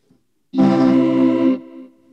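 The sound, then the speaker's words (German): A vocoder holds a single voice formant as a sustained buzzy, synthetic voice-like tone with a strong harmonic stack, steady for about a second, then fading into a quieter lingering tail; no talking. “Und ich kann auch diesen Ton halten, zumindest einen Formant halten”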